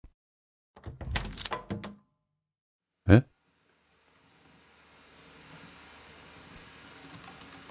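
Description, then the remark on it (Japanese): Indistinct voices or shuffling sounds come first, then a single solid thunk as the door of a small room on the third floor of a building opens. Afterward, a soft, spacious hum from the vast floor behind the door slowly rises and fills the background. “こう言ってうたつは小さな部屋の扉を開いた”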